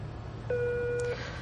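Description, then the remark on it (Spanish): A telephone line rings on the other end with a single steady electronic tone lasting under a second, heard over a low background hum, with nobody picking up. “Nadie coge el teléfono.”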